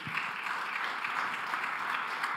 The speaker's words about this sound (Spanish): todo esto es por gracia y por favor, dele otro aplauso.